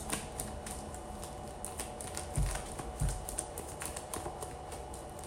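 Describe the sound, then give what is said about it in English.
A deck of tarot cards being shuffled, a steady stream of quick, crisp clicks and riffles with a couple of soft thumps partway through; no one speaks. “I've been noticing like my me shuffling my my decks is like they either get heavier and heavier or it just feels like I don't know what's going on.”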